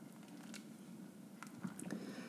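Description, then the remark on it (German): Thick, wet squelching and soft scraping as a wooden cooking spoon stirs thick polenta in a pot, a steady stirring sound with gloopy, sticky textures and no voices. “Und umrühren. Nehmt den Kochlöffel. Wir rühren, rühren, rühren.”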